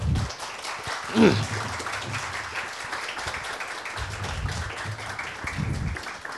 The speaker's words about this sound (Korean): 예, 먼저 그또 하나의 가족을 연출하신 우리 김태훈 감독님 모시겠습니다. 박수를 맞아주세요.